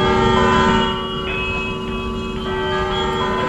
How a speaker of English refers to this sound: get your bells going.